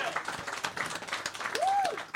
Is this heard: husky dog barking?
no